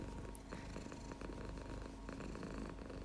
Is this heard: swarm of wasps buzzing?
no